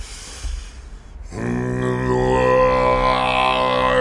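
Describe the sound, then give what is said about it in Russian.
A rough, breathy rumble gives way to a deep, steady throat-singing drone, one low voice singing the Lord's Prayer ("Our Father") and holding a buzzing tone with bright whistling overtones, loud, with no other sounds around it. “И начинал горловым пением петь э, молитву «Отче наш», это звучало так.”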